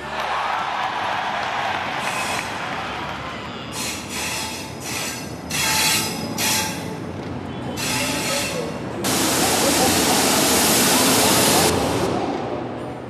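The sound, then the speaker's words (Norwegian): A train rumbles steadily at Berlin Zoologischer Garten station, Germany, with broad hissing bursts and a loud sustained rush toward the end, like brakes or passing carriages, fairly loud. “finner Ninja det rette toget som kan ta henne med tilbake til Schlachtensee”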